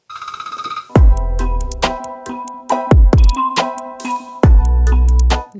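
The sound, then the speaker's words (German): A loud, melodic phone ringtone of an incoming call plays a repeating electronic tune with punchy bass beats, steady, with no voices over it. “Telefon, das ist doch jetzt wieder so ein typisches Beispiel.”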